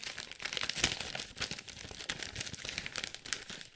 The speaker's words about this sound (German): zerknüllst einfach wahllos irgendwelche Zettel gerade die waren nicht wichtig. Das war, glaube ich, irgendwelche, das war mein Staatsexamen 1 und 2 und noch irgendwas. Geburtsurkunde oder so.